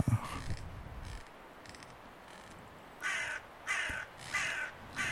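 A crow caws three times in a steady rhythm, harsh, after a few seconds of quieter outdoor background with faint earlier calls, accompanying a reading of La Fontaine's fable of the crow and the fox.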